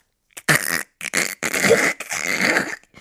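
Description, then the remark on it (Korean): A voice imitates a pained, strained groan: several choked, wordless bursts in quick succession, loud, as if a frozen ice pack from a delivery had just fallen out of the fridge onto a toe. “이런 소리밖에 못 낸다니까요. 너무 아파가지고.”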